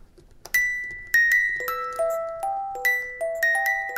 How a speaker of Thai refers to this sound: จำเสียงนี้ได้ไหมครับ เสียงนี้เรียกว่าเสียงของ a music box ใช่แล้ว a music box